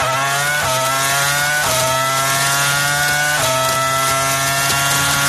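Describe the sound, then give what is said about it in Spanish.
A 2000s-era Formula 1 V10 engine screams at high revs, loud, its shrill pitch climbing and then dropping sharply with each of several quick gear changes. There is no talking. “Esto es un V10, época mm, de años 2000 de Fórmula 1.”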